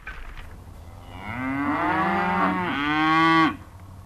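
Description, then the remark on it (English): A cow moos twice in close succession, long drawn-out lowing calls that are loud, with no one talking over them, as cows close in on a balloon that has just landed with its basket overturned. “I always knew those cows would close in.”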